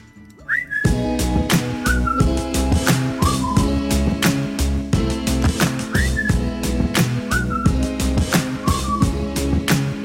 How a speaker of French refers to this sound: J'aime bien l'idée d'utiliser le, sifflet au début. ça se perd, hein, j'adore ça. c'est bien un bon petit sifflet sur un mm. morceau.